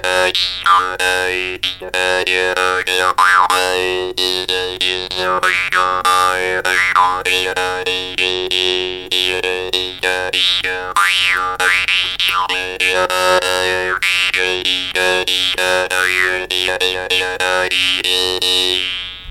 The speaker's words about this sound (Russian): Мы к зубам эту пластинку представляем, и между нее язычок. Мы второй рукой этот язычок дергаем